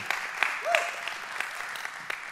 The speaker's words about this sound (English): Let's give it up